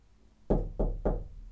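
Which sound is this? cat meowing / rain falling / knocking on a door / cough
knocking on a door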